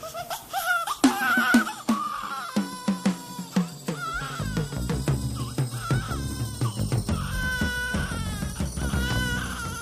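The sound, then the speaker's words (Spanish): A baby cries and fusses in short, wavering bursts within a song a musician dedicated to his daughter, mixed over a steady music track with drums and bass that grows fuller partway through. “La del chiquillo llorando.”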